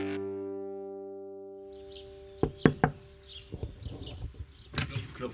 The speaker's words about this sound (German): Klopf, wer klopft denn da?